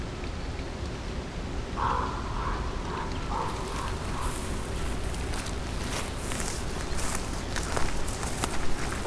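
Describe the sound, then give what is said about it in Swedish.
Footsteps walk across yellow fields outdoors in Białowieża at a steady, unhurried pace, each step a soft brushing crunch over a constant background hiss, growing a little more distinct toward the end. “Vi går över gula fält.”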